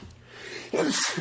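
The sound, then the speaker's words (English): A single sharp sneeze bursts out after a brief breathy intake, loud and abrupt, with a bit of laughter around it. “Bless you. I'm allergic to bullshit.”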